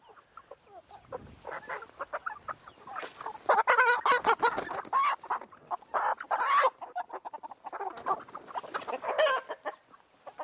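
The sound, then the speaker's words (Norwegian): Several chickens cluck and chatter, including a young rooster's rough, squeaky calls, in busy overlapping bursts with no one speaking; two roosters are among the hens. “Her har vi to haner.”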